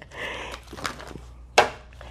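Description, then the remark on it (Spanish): A deck of angel cards being shuffled: soft papery rustling and faint taps, then one sharp, bright slap of cards toward the end, with no voices. “Así que bueno, hoy eh, les voy a dar el ángel acá, ya que no lo hice eh, les voy a dar el ángel y el ángel que viene hoy a ustedes, voy a barajar mis ángeles.”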